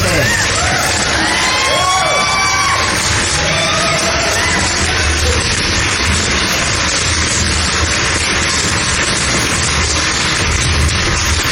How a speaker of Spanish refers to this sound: Aplauso, gente.